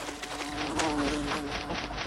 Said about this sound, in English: The key is to wait and follow the wasp from behind, like this.